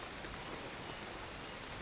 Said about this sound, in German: Doch durch den Abstand, der jetzt zwischen ihnen entstanden war, und den Lärm des auf den Regenschirm prasselnden Regens, mussten sie jetzt fast schreien, um sich gegenseitig noch zu verstehen.